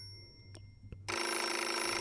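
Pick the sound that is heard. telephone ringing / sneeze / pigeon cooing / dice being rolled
telephone ringing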